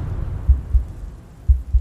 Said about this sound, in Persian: از شدت استرس ضربان رو شقیقام حس میکردم